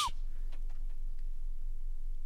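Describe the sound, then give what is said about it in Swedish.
A very deep 20 hertz test tone from a recording used to test speakers hums steadily for a couple of seconds, more felt than heard, with a faint pulsing wobble and a few soft clicks at the start. “Det här är 20 hertz.”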